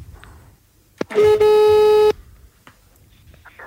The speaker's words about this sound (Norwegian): vi satser på at han plukker opp også når jeg plinger på. Det er ikke alltid han tar telefonen, bare så det er sagt. Nei, vi prøver. Vi prøver.